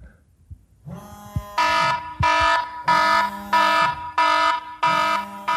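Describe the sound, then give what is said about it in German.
An iPhone ringtone repeats in loud, evenly spaced electronic bursts, with a low buzzing rattle underneath as the phone, laid to charge on a radiator beside a bed, vibrates against the metal radiator. No one speaks. “Dann habt ihr nicht nur den Klingelton, Moment, sondern auch”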